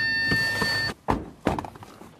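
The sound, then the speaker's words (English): A heavy farm door is worked open after a freezing night: a scraping, tonal grind, stiff and creakier than usual, gives way to two solid thunks as it shifts and settles, with a brief rattle after. “so we'll open up some doors and see what's what's happening”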